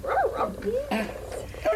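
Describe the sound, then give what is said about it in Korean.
A furry robot pet dog at a Japanese nursing home gives a quick run of short, yippy barks and whiny yelps, fairly loud, with a few brief pauses between bursts. “갈색 고양이, 검은 고양이, 털복숭이 강아지도 있고요. 다들 소리도 내고 팔다리도 움직이고 눈도 깜빡이고 고개도 움직이다 보니 일본 노인들은 이들 로봇을 진짜 동물처럼 여긴다고 했습니다.”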